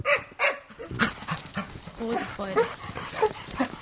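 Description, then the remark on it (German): A female German Wachtelhund (German spaniel) whines eagerly in excitement about going out, a string of high, wavering cries that rise and fall in quick succession, with faint rustling and breathy sounds between them. “Das ist ein deutscher Wachtel hier.”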